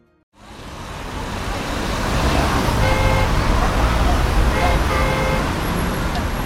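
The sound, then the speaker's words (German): A steady, dense roar of traffic on a busy main road that feeds onto a motorway and is often jammed, with car horns tooting a few times partway through over the constant rumble of passing vehicles. “Also am meisten nervt mich hier der Autoverkehr. Der Verkehrslärm, die Abgase. Das ist eine Hauptverkehrsstraße, Autobahnzubringer und oft ist Stau.”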